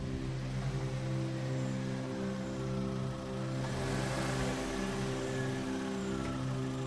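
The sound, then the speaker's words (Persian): A car engine hums steadily as a car is driven into a house's yard and parked beside another car, its low harmonic drone holding even for several seconds with a slight rise in revving midway, no voices present. “ماشین اون دختره هم آوردیم تو حیات کنار اون یکی ماشین گذاشتیم”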